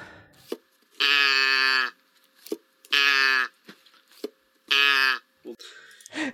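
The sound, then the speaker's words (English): A man's watch alert rings out three times, each a loud, buzzy, nasal tone like a distorted cow moo lasting about a second, with short clicks and taps in the gaps between. “all of a sudden you hear his watch make a, a, a noise. And the noise is what I'm putting in the Discord right now.”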